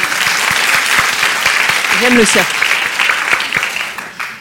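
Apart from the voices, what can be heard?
audience applause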